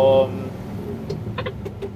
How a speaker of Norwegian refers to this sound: Hvis du lurer på hva den der klikkelyden i bakgrunnen er, så er jo det girkassen.